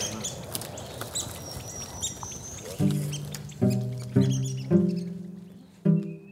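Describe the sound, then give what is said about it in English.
Three red-cockaded woodpeckers calling after landing in a tree in their habitat in West Georgia, a run of harsh, nasal chirps repeated every half second or so, with fainter high bird twitters and outdoor ambience in the background. “the red cockaded woodpeckers just lit in that tree right there. Hear them?”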